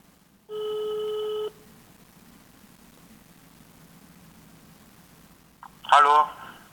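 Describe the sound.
A single ringback tone of an outgoing phone call, a steady electronic burst lasting about a second, followed by a quiet line hiss, then a click as someone picks up and a voice briefly answers.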